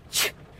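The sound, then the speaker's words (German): A single short, sharp sneeze bursts out, a quick hissy explosion lasting a fraction of a second before fading into quiet. “Oh, Gesundheit, mein Lieber.”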